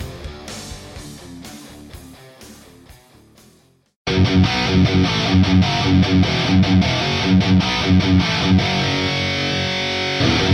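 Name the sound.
heavy metal song playing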